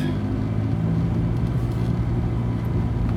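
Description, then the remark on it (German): A deep, steady low-frequency drone from a car in motion, seeming to come from the left side and changing with speed but not with pressing the accelerator, droning throughout with a faint road hiss above it and no voices. “Und jetzt ist wieder ein dunkles, tiefes Brummen beim Fahren dazu gekommen.”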